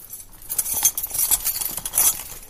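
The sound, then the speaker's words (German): Keys jangle and clink metallically, a busy flurry of small bright jingles over a couple of seconds as a social worker unlocks the door to a large hall otherwise used for church services, with no one speaking. “Auch zu dieser Tür hat der Sozialarbeiter Daniel Rilli einen Schlüssel.”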